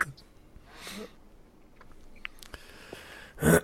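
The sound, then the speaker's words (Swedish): An old stamp album falls off a shelf with a short, loud clatter near the end, after a quieter rustle and a few faint knocks. “Rasade någon jävla skit i en hylla här för mig.”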